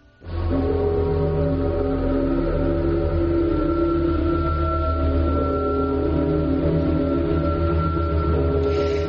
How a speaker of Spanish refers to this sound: sintonía, con un alarido, con unas campanadas, un poco tremendo. Hmm. Era un programa que se llamaba Al otro lado. Efectivamente, es un programa eh, del año más o menos, esta emisión eh, es, aproximadamente del año 1975.